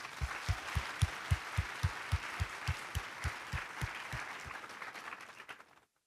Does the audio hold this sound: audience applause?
yes